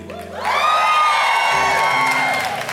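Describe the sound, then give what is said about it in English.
A large crowd of mothers in a church on Mother's Day cheers and yells loudly when asked to make noise, high-pitched whoops and shouts blending into a sustained roar that swells quickly and holds for a couple of seconds. “Hey, here's the thing I know y'all have practice yelling.”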